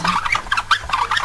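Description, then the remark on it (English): Squeaky wheels of an old wooden toy goat give off a quick run of shrill, chirping squeaks in a steady rhythm, fairly loud, with no talking. “Look at this. squeaky wheels.”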